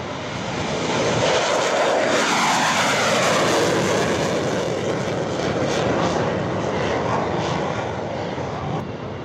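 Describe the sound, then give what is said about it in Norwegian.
A low-flying military aircraft roars past with a loud, broad engine rumble, its pitch sweeping downward as it passes overhead, then continuing as a steady drone; it is flying at low altitude back to its base after a mission. “Eh, så som han sier, når han flyr i lav høyde tilbake til basen etter et oppdrag, da får han den beste”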